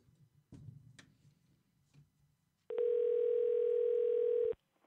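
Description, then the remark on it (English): A telephone ringing tone sounds while a call is placed to an engraving shop: one steady, loud electronic burst lasting about two seconds, following a few soft clicks and handling noises. No one speaks. “Is, is this the engraving place? Did I call the right place?”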